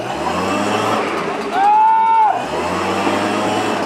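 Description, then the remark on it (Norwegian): A blower motor runs at full throttle submerged in a water-filled tub to make a homemade bubble bath, making a steady, rough churning drone over a low hum as the water bubbles. Midway, a loud, high whine swells for under a second, then falls back to the churn. “Nå går blåseren nedi! Kom igjen! Full gass!”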